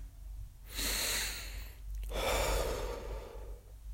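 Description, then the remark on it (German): An audible breath drawn deeply through the nose, followed by a long airy exhale after a brief pause, with no talking. “Wir atmen sofort tief ein.”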